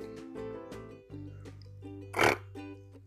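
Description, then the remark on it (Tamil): A voice imitates a duck's egg cracking open as a duckling hatches in a told children's story, with a string of short, nasal, grunting bursts building to one louder, breathy crackle near the end. It is fairly loud, with no actual words. “அப்படிங்கிற சத்தத்தோட அந்த முட்டையும் உள்ளுக்குள்ளேருந்து ஒரு குட்டி வெளியில் வந்துடுச்சு”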